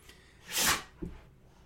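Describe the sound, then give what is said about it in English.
A dog named Chauncey sneezes once, a sharp breathy burst of air followed by a brief low snuffle, with no voices around it. “And that's Chauncey sneezing because he's allergic to the bullshit of Stewart Mandel and most of the folks of their ilk.”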